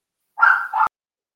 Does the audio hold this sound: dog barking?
yes